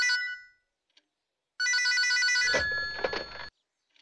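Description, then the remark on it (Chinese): An old-fashioned telephone on a desk in a criminal investigation bureau office rings loudly in two bursts, a short fading ring followed by a longer, rattling metallic ring of about two seconds, then silence. “忽然桌上老式的电话铃声响了起来。”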